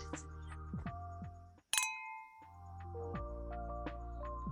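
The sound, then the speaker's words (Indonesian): Wine glasses of 2019 Australian Merlot clink together once in a toast, a bright, sharp tap that rings on with a fading glassy tone, set against a steady low background hum. “let's cheers for our conversations tonight.”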